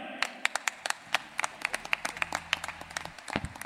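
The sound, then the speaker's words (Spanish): Audience applause at an evening event, welcoming a guest influencer. Many distinct, fairly sharp hand claps in a quick, uneven patter, holding steady at moderate loudness before fading slightly at the end. “Un aplauso para él.”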